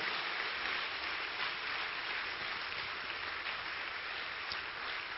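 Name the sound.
audience applauding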